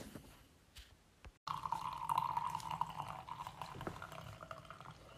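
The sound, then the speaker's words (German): Coffee is poured into a cup for a guest, pouring steadily for several seconds, a continuous bubbling trickle with a mid-pitched gurgle, moderately loud, after a brief quiet pause and a short cut at the start. “So Max, schenke ich erstmal einen schönen Kaffee ein, ne?”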